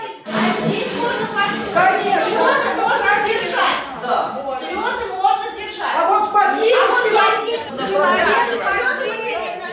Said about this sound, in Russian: Иногда знатоки не соглашались с трактовкой вопроса. Разгорались споры, становилось шумно.